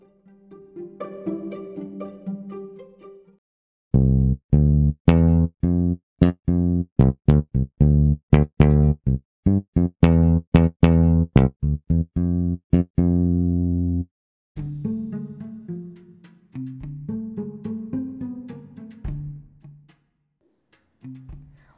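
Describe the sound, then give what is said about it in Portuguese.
An electric bass guitar plays a steady run of deep, plucked notes in a quick, even rhythm, loud, lasting around ten seconds, with quieter unrelated sounds before and after. “escutar agora um trecho do baixo elétrico.”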